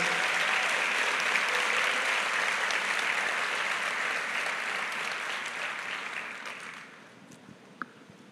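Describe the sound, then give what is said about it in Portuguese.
Sustained crowd applause, a dense wash of many hands clapping at steady volume for several seconds before tapering off, with one sharp clap near the end. The applause is given for Jesus. “Se você recebe isso para a sua vida essa noite, dá a sua melhor salva de palmas para Jesus aí.”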